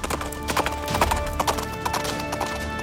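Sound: horse hooves galloping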